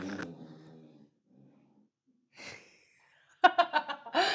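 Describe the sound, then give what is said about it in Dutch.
A dog, just brought inside to cool off, pants in quick, rhythmic bursts of breath, starting after a short vocal sound, a pause, and a single loud exhale. “Ik ga even een hond naar binnen halen. ga, maar, ga maar afkoelen.”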